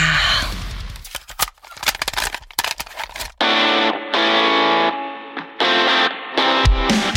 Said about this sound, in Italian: Ma prima, sigla!